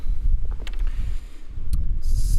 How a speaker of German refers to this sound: So, wir gucken mal, ehe wir jetzt hier gleich weggeweht werden. Der Wind ja. nimmt, nimmt, nämlich gerade stark zu hier draußen in der Eifel.